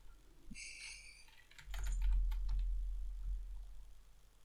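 Rapid clicking of keys on a computer keyboard, a burst of taps picked up by the microphone over a low background rumble, with no voices.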